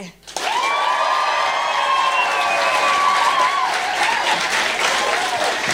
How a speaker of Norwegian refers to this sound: Så nå tar vi en øvelse. Nå skal vi late som om noen har akkurat blitt ferdig med en dikt. Den var kjempe, kjempegod. Ok, er dere klar? Og så ser jeg én, to, tre, og så begynner dere å klappe og vise masse macho-kjærlighet.